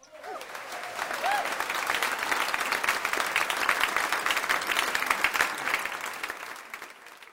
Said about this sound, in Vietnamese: cho anh tràng pháo tay